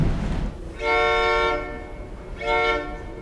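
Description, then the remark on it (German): A Rocky Mountaineer passenger train travelling through the Rocky Mountains sounds its horn twice, two steady, chord-like blasts of about half a second each, over a continuous low rumble of the moving train. “Ich freue mich, viele Gäste aus Deutschland hier im Rocky Mountaineer Train zu begrüßen.”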